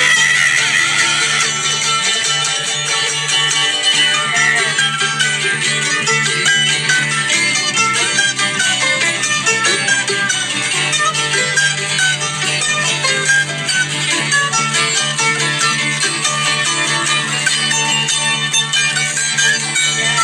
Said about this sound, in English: Brother Sean Paul starts playing like the electric guitar on his mandolin to …